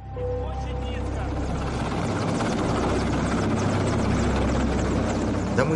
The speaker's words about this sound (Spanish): Vimos como un helicóptero del gobierno descendía intencionadamente en el punto donde estaban las flores, para que el rotor y el viento lo tiraran todo.